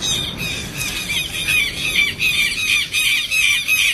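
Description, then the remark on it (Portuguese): Many small birds squawk and screech loudly all at once in a dense, continuous chorus of shrill, overlapping calls, with no voices. “Os passarinhos, todas.”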